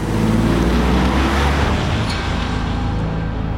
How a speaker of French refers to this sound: François bondit à la place du mort, Jacques enfonce la pédale et met de la distance avec ses poursuivants.